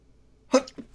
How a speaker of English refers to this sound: Oh man, it's almost sneeze. Well, that was a sneeze. That was a sneeze.